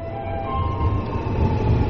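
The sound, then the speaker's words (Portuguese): A Beijing subway train rumbles along steadily, with a deep continuous low roar and faint high metallic tones ringing over it, fairly loud, with no voices. “sai da casa, pega o metrô sozinho e percorre metade da cidade de Beijing para frequentar o curso da Ópera de Beijing.”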